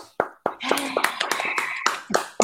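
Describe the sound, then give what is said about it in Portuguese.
A burst of audience applause, many hands clapping densely together for a couple of seconds, fairly loud and close with sharp percussive onsets, sounding like a canned sound effect. “me senti com plateia agora.”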